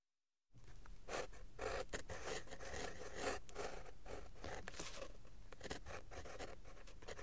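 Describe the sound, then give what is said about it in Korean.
A pen scratches steadily across paper as an old man sitting at a desk writes in clumsy French, fairly loud, with quick broken strokes and brief pauses running continuously after a short silent start. No one speaks. “그러고는 뭔가 생각에 잠기는 표정으로 책상에 앉아 서툰 불어로 글을 쓰기 시작했다.”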